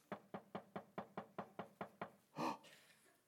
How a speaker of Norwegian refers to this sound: Så går han, og så var noen småfugler som kikket inn vinduet, som ligger og pikker på vinduet.